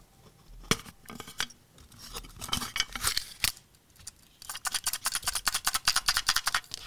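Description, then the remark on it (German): Plastic clicking and rattling as an audio cassette case is handled and opened, with a burst of sharp clicks followed by a fast run of ticking snaps, no voices. “Das ist eine Kassette.”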